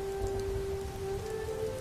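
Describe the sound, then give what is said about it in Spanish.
Steady rain falls continuously in late autumn after several days of uninterrupted rain, a dense, even patter with a low rumbling wash underneath and a faint sustained tone running through it, no voices present. “Llevábamos varios días con lluvia ininterrumpida.”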